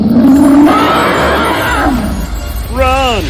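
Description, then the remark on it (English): A loud monstrous roar from a dragon in a cave, swelling and rasping for about two seconds, then a shorter, wavering growl bursts out at the end. “But it was too late, for the dragon opened its fierce eyes and looked up. Seeing the two men, she roared loudly.”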